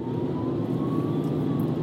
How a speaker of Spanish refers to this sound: Viene un, un coche de la Guardia Civil. Voy a dejarle pasar. Vale. Venía un coche de la Guardia Civil con las luces, estaba oyendo la sirena, no sabía por dónde venía, no sabía tampoco si era un policía, ambulancia